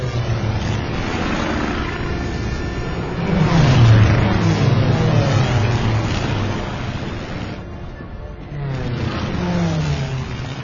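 152 carrier aircraft taking off from several aircraft carriers, including the Lexington, during a naval exercise simulating a raid on Pearl Harbor: a steady, loud engine roar whose pitch swells up and then sweeps down twice as planes pass, with no voices.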